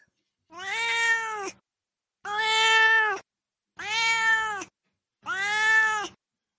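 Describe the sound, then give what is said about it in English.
A cat named Duarte meows four times in a steady sequence, each call drawn-out and loud, with short pauses between them and no talking. “Uh, we'll turn to Duarte's corner and have Duarte give his opinions on the book.”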